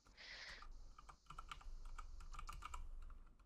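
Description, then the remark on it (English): Rapid, irregular clicks of keys being struck on a computer keyboard, fairly quiet, with a steady background hiss and a brief pause near the middle. “Oh, oh, is somebody typing?”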